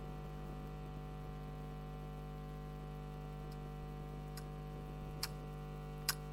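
A large clock ticks a handful of times, sharp, clicky and fairly slow, starting faint and growing more distinct, over a steady low electrical hum with no voices.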